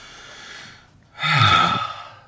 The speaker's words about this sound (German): Ja, das Atmen musste ich jetzt extra einbauen.